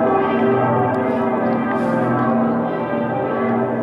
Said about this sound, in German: Um 12 Uhr läuteten europaweit die Glocken für die Ukraine. Und so klang es am Kölner Dom.